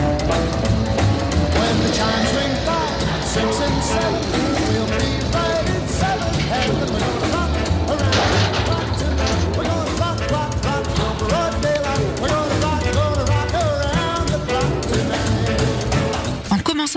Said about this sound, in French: George Lucas choisit un titre des plus emblématiques puisque cette version est considérée comme l'alpha du rock roll